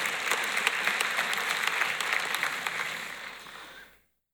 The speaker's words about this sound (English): We should clap for the high schoolers too. I don't, I don't want them to feel left out.